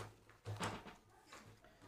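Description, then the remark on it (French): A drawer slides open with a short scraping rush, followed by a softer shuffle of items being moved about inside while searching for a new voter card. The sounds are quiet, with no voices. “Regardez, elle est là, elle est dans mon tiroir.”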